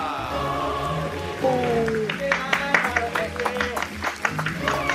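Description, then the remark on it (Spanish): Scattered applause breaks out partway through on the program Espacio Deportivo de la Tarde to welcome guest Pepe Segarra. The irregular, crisp hand claps come from a small group and follow a few seconds of sustained tonal sound, with a voice heard faintly underneath. “Fuerte el aplauso para recibir a Pepe Segarra.”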